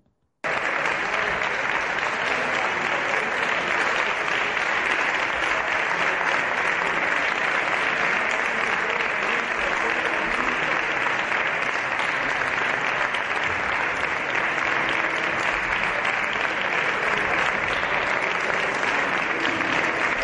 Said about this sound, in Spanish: vamos a ver otra de las imágenes del día, la sesión de control del Congreso, del Congreso, el aplauso de la bancada socialista a Sánchez por haber indultado a los golpistas. Vamos a escucharlo.